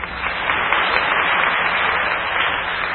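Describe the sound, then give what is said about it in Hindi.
An audience claps steadily for about three seconds, a dense, even wash of many hands with no pauses and no talking over it. “तालियां मत बजाओ सिर पे हाथ रखो”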